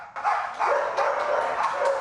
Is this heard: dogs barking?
yes